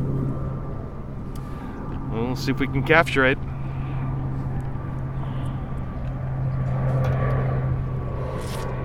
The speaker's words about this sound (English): Mm. Well, it's one of those Coast Guard planes, so that's cool. Right here at McClellan Air Force Base, which is over the freeway, which is nice.